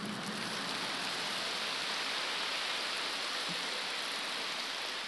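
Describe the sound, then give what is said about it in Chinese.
Steady, dense applause from an audience, a continuous crackle of many hands clapping at an even level for about five seconds, with no voices over it. “看到你们这么多的掌声，不讲又不好意思。”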